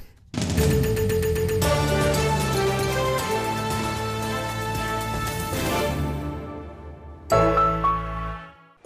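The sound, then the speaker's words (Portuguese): An old car engine sputters and backfires in a loud, rapid stutter of pops for several seconds, cuts out, then coughs back briefly before stopping. No one speaks. “Esse carro estava mesmo a pedir a continuação daqueles barulhos estranhos do motor.”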